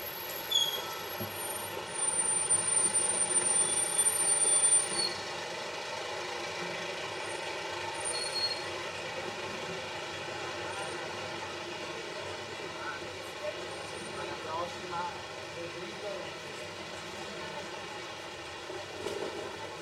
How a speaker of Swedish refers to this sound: Ja, nu har, har odjuret gått. Det var en brandbil som kom i vägen här.